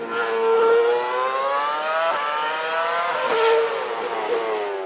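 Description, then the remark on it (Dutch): A Ferrari Formula 1 V8 engine of the 2006–2013 era screams at high revs, its pitch climbing and dropping through rapid gear changes in a loud, continuous wail with no one talking. “Dus we hebben hier ten eerste de V8.”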